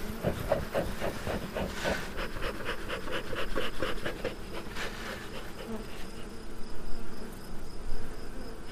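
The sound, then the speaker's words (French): A dense, steady buzz of many bees around a beehive being smoked with a beekeeper's smoker burning newspaper, dry grass and green pellets, with soft puffing and hissing bursts mixed in over a continuous droning hum. “La fumée va les calmer, ça va les occuper, ça va les obliger à ventiler. Pendant ce temps-là, on peut travailler sur la ruche.”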